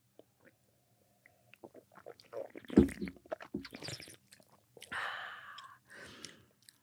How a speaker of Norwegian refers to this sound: Du, nå tar du en slurk, og så ja. gjør du akkurat det jeg gjorde. At du liksom slurper den litt. Altså skyller den gjennom hele munnen.